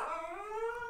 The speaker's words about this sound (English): Finley, shut up. Finley, that's my dog. Shut up, Finley.